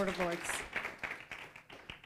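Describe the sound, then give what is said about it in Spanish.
An audience gives a strong round of applause to the King of Kings and Lord of Lords during a church sermon, a dense patter of many hands clapping at once in a steady wash, with a voice briefly heard at the start. “Él Él ese fuerte aplauso al Rey de Reyes y Señor de Señores.”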